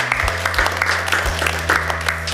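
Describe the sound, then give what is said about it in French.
An audience applauding, a steady dense patter of many hands clapping at once, moderately loud and continuous throughout, with a low hum underneath. “On peut, on peut applaudir une nouvelle fois, s'il vous plaît, merci.”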